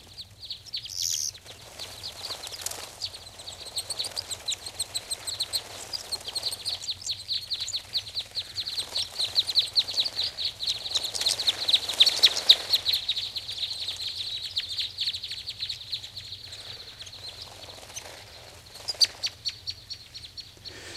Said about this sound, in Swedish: Ja, det var en hel flock med större korsnäbbar.